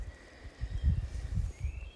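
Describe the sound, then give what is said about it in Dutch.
Faint birdsong drifts through a quiet, sunny wood in Groesbeek, with thin sustained whistles and a rising call over low rumbling wind or handling noise. No one is speaking. “Ik denk dat je de vogels kunt horen.”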